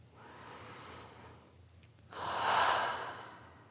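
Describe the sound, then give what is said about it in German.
A slow, deep breath drawn in through the airway, a brief pause, then a longer, louder exhale, with no one talking. “Und bevor wir so richtig einsteigen, atmet erstmal tief durch.”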